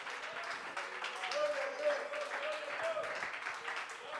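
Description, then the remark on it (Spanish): An audience applauding steadily in praise of God, a dense wash of many hands clapping at once, with voices faintly carrying underneath throughout. “Puede aplaudirlo con más gozo en esta hora.”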